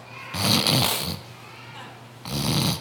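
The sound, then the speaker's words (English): A voice imitates throat hawking and spitting: a long raspy, gurgling burst, a pause, then a second shorter rasp at the end. No words are spoken. “Spits in the guy's eyes.”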